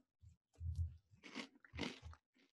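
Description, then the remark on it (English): Crunching as crunchy edible insects are bitten and chewed, several sharp crackly bursts in quick succession over a couple of seconds, with no talking. “People have told me they like the sound of the crunching and the eating and the drinking.”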